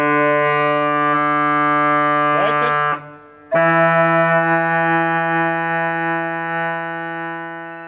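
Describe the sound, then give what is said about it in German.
A sustained organ pipe tone rich in steady harmonics sounds loud, briefly wavering in pitch while the pipe is tuned by opening its slot, then cutting out for a moment and returning clear and stable. “Jetzt hört man, dass die Pfeife stimmt, indem ich den Schlitz geöffnet habe.”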